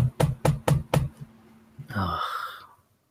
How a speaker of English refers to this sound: There's a knock at the door then.